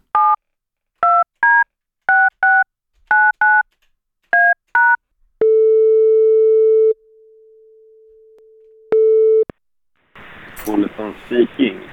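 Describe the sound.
A quick run of about ten telephone keypad beeps, followed by long steady ringing tones on the line, then a voice begins talking over a faintly noisy phone connection.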